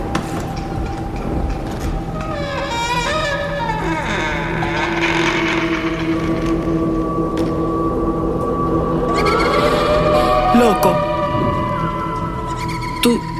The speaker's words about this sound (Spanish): ¿Tú, ¿Tú escuchaste eso? Eso parecía un lamento. Eso es el viento. Tú sabes que la casa vieja rechina.